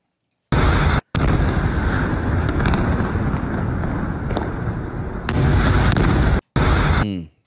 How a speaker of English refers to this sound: the spy headquarters and gatherings of the anti Iran groups in the parts of the region were targeted by ballistic missiles in the middle of the night, according to the ABC News source. And here is the big boom.